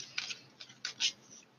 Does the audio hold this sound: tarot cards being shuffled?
yes